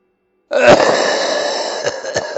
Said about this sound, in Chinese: 还没走出几步，就听见左边的黑暗里传来了刚才的咳嗽声。